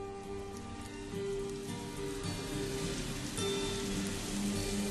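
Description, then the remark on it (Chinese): Rain patters and drips steadily outside a window at night, a dense, continuous hiss of drops at an even level throughout, with a faint low hum lying underneath and no voices. “听见窗外滴滴答答的声音，在淡淡的百合花香里，沉沉的睡去，一夜无梦。”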